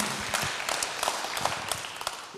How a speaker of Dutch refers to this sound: Hey, laten we al die volgangers, al die leiders door de hele move de grote applaus geven. Van wat er allemaal gebeurt. Pretty amazing.